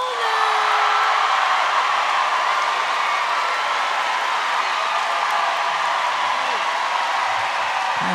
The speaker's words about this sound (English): Give us your most exuberant, your loudest, your warmest applause for Hari Kondabolu.